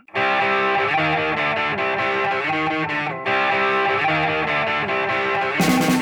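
Loud, dense punk rock music with heavily distorted guitars playing steady chords at a driving pace, no vocals audible, with a brief break near the end before the sound surges back in.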